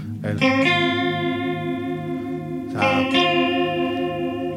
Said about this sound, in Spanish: Lo que viene siendo el chorus.